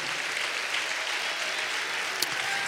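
Sustained applause from an audience for the Lord, a dense steady wash of many hands clapping at an even loudness throughout, with no voices standing out.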